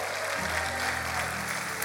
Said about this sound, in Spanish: Vamos, a alguien que lo crea y le dé un aplauso al Señor.